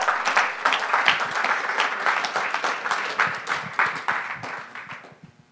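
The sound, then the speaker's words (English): An audience claps steadily during a sermon for about five seconds, a dense patter of many hands at an even, moderate loudness that slowly thins and fades toward the end. “You can clap.”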